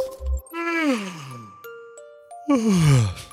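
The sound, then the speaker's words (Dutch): Two long, voiced human yawns, each sliding downward in pitch into a drawn-out groan, separated by a brief chiming tone. They're fairly loud, with no talking. “Ja, jij gaapt ook al hè. Door een gaap te horen alleen al.”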